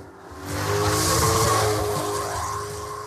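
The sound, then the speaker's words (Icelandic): A car roars by at speed during the Bíladagar car festival in town, engine noise swelling to a broad loud rush around the middle and then fading as it passes, with steady road hiss throughout and no voices. “Þetta er náttúrulega bíladagar og það er náttúrulega að týnast í bæin alls konar fólk á, á, á mismundi flottum bílum með tilhengandi hraða.”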